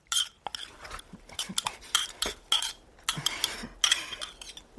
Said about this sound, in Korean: 잠시 후 이모가 김이 무럭무럭 나는 국밥 한 그릇을 가져온다. 난 고맙다는 말도 없이 그 한 그릇을 금방 먹어 치운다.